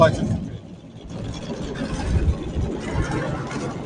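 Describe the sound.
A truck engine rumbles steadily as the truck backs out of a yard, a continuous low, heavy drone that swells slightly partway through, with indistinct voices faintly mixed in.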